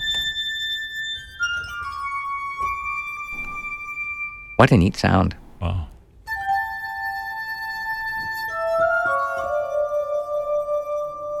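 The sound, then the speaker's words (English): Clear, sustained ringing tones from a duo playing Bach's Toccata and Fugue in D minor on a set of custom-made water-filled wine glasses of different sizes glide from note to note in a melodic line, with a brief spoken remark breaking in midway. “This is the … performing Bach's Toccata and Fugue in D minor on a set of custom made water filled wine glasses.”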